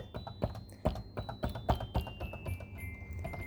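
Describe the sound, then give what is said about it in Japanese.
Keys on a toy keyboard clack in an uneven series of sharp, close clicks, about eight presses in a few seconds, while a faint, very high sustained tone rings underneath. “この私の打鍵の音がちょっとうるさいかもしれないけど、すっごい高い音。”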